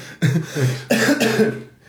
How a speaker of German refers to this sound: Ach, guck mal, ein bisschen Husten habe ich auch. Ja, wo kommt der denn her? Du, den habe ich seit dem Wacken.